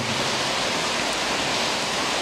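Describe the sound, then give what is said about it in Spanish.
A steady, dense hiss of heavy rain pouring down continuously, loud, with no pauses or distinct drops standing out and no voices. “Señor, gracias por la lluvia que nos recuerda de tu gracia, de tu misericordia.”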